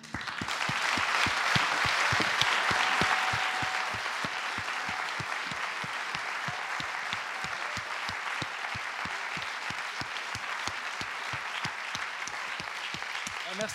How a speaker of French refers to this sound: Voilà, on peut vous applaudir.